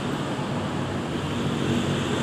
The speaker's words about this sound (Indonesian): Suara angin juga masih sama.